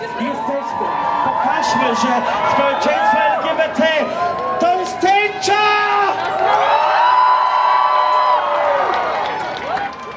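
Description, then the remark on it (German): A large crowd at the 2021 Gleichheitsparade (Equality Parade), an LGBT parade, cheers loudly and continuously, with many overlapping whoops and shouts rising and falling in pitch, dense throughout. “Jetzt machen wir noch einmal Krach und holen alles raus, was Regenbogenfarben ist.”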